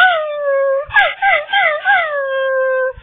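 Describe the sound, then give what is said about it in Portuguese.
A dog howls in one long, steady cry that breaks into a wavering, whimpering warble midway before settling back into a sustained howl. It is clear, with no other sounds. “Mas em janeiro e fevereiro do ano que vem vai ter muito cachorro que vai estar assim, ó.”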